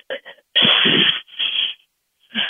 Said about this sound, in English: when you're breathing, practicing, you want to make that hissing sound. You don't let all the breath come up. There's no power there.